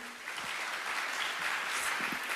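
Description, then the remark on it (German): Steady audience applause for a group of men fills a church, a dense wash of many hands clapping at once, sustained and fairly loud throughout with no voices standing out. “Männer, großartig, Applaus”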